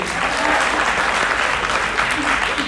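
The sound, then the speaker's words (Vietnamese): A crowd claps steadily, a dense wash of many hands applauding, sustained at an even level for a few seconds with no one speaking over it. “sorry, give him a big hand I'm sorry”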